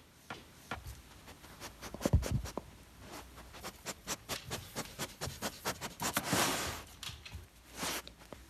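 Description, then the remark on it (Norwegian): A dog, Henry, sniffs in quick bursts while searching during nosework training for a tiny hidden cotton swab tip scented with birch, with soft rustling and scuffing in between and a louder thump early on; no one speaks. “Det vi hørte her, det er Henry som driver med nosework.”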